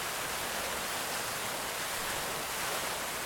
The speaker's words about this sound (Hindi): देखो ना ये झरने का पानी कितना साफ है इसमें मैं मेरी शक्ल भी देख सकती हूँ